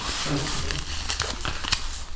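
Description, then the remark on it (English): A flattened paper draw ball is unfolded during a draw of team ties, with a steady run of crinkling and crackling, sharp papery snaps scattered irregularly over about two seconds, a faint murmur of voice beneath. “unfold right, this flat ball.”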